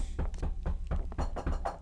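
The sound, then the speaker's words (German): Rapid, steady knocking on a hard surface in place of clapping, about eight dull thuds in quick succession, moderately loud, with no voices. “Ich habe, ich habe hiermit geklopft, sage ich euch.”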